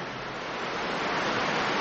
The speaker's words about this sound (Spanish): Se estaba preparando una tempestad una de las más terribles que se hubiese visto nunca en el mar.